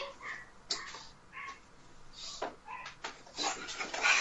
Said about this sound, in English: It's just yapping and yapping